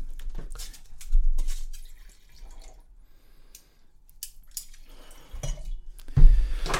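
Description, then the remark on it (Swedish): Wine trickles and splashes into glasses in short uneven bursts of pouring and dripping, with a few soft clinks and a louder gurgle near the end; no one speaks. “Jag, jag, jag häller inte bara ut på en gång som ni gör.”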